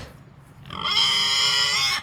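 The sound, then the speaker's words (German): A young boar on an organic farm grunts, starting low and quiet, then breaking into a loud, drawn-out, high-pitched squealing call that lasts over a second. No one speaks. “Na, es ist aber immer noch ein kleiner Eber, der will noch ein bisschen wachsen.”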